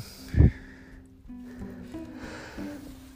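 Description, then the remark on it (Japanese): A single short, muffled cough bursts out, followed by quieter low, steady background sounds. “すいませんちょっと咳が”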